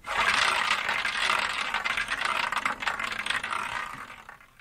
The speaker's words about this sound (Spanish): Nos vamos con el sorteo y ya volvemos a cerrar cada mañana. A ver, a ver, a ver cómo suena ese bolillero.